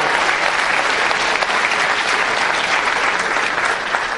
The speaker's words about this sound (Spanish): Así que un fuerte aplauso para ustedes, primero. Fuerte, fuerte aplauso para ustedes.